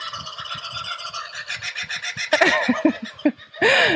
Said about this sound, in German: die Papageien um mich herum wünschen dir auch frohe Weihnachten.